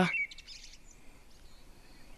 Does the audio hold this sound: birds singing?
yes